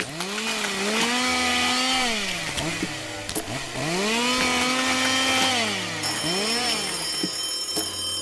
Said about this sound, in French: Il n'a d'autre choix que de faire fonctionner la tronçonneuse. Il y arrive au bout de 15 minutes à bouger les boutons dans tous les sens.